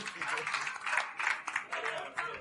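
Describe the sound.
A crowd applauds in a dense, steady wash of clapping that swells and dips slightly, with a few voices mixed faintly underneath.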